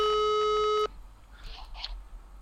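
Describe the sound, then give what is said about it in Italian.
A telephone ringing tone: one steady, buzzy electronic tone that holds for under a second, then cuts off abruptly, leaving a faint hiss with a few soft rustles. “proviamo a chiamarlo.”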